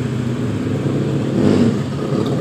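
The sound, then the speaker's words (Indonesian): Steady drone of motorcycle and traffic engines on a busy street, with some motorcycles speeding and others riding slowly, one vehicle swelling a little louder as it passes midway, set against a continuous roadway hum. “Suara motor pun masih seperti itu. Tak ada habisnya. Ada yang kebut-kebutan, ada yang berjalan landai.”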